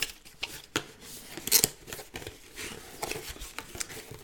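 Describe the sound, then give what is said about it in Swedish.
Scissors or a blade slicing through packing tape on a heavily taped box of mobile phones being unboxed, with irregular crisp snips and scraping rustles, a few sharper cuts standing out, no talking. “Nu ska vi se här. ganska vältejpat får man säga.”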